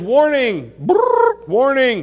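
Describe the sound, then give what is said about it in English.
A man's voice, loud, imitates a trumpet blast with a buzzy, rolling brass-like call. The imitation sits between two drawn-out spoken words. “He blows the trumpet and says,”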